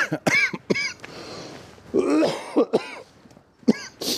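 A loud fit of repeated coughing mixed with throat clearing, arriving in several harsh bursts with brief pauses between them.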